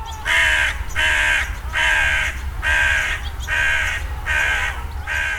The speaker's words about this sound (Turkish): Leş kargası belki de en azından İstanbul'da en çok gördüğümüz türlerin başında geliyor.